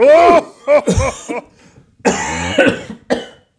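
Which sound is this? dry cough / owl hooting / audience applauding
dry cough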